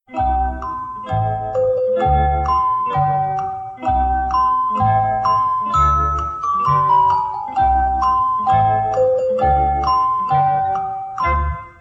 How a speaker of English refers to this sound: Well, let's play the Jeopardy sound again.